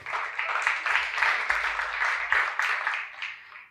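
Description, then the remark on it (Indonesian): An audience breaks into applause for the Lord Jesus, a dense, steady wash of many hands clapping at once for a few seconds before fading out at the end. “Yang setuju tepuk tangan untuk Tuhan Yesus.”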